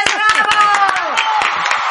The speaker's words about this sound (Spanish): ¡Un aplauso para